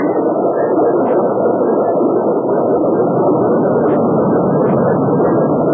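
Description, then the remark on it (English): A loud, steady roar of rushing water from a waterfall, continuous and unbroken throughout, dense with no voices over it. “look, a big hole in the rock behind the waterfall.”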